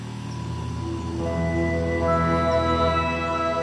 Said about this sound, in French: Je me réveille doucement par le bruit du moteur du tuk-tuk à travers la nuit. On distingue l'ombre de ces arbres qui bordent la route.